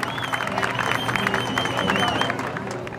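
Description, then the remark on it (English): An excited crowd cheers and shouts on the airport tarmac in Port-au-Prince, Haiti, waiting behind a yellow security ribbon: a dense, steady roar of many voices with scattered clapping and a few high whoops rising above it throughout. “The cameras follow them as they make their way onto the tarmac with an excited crowd waiting for them behind a yellow security ribbon.”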